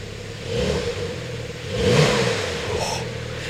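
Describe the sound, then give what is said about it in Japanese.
A Porsche sports car engine revs up twice in quick succession, its deep mechanical roar swelling and easing back to a steady idle, with no talking. “ポルシェに乗ってエンジン音を体験”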